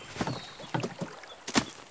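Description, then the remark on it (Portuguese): A small rowboat being tied up at a dock knocks and scrapes against it, a few dull wooden thumps and creaks spread unevenly over a couple of seconds, with a light watery hiss beneath. “Agora vá. Amarra o barco. Mas, por favor, melhor do que da última vez. Não quero molhar os pés.”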